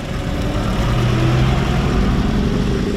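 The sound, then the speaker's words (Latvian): A vintage car engine idles steadily, a loud, continuous low rumble with a constant throbbing hum and no voices for the full three seconds, during a tour by retro enthusiasts driving old cars and motorcycles to manor houses in Latgale, Latvia. “retro entuziasti, kas ar seniem automobiļiem un motocikletiem kopā apbraukoja taisnu Latgulas mūžas pilis.”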